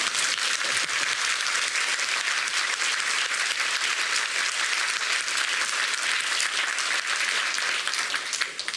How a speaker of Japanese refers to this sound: 拍手して主に栄光を返しましょ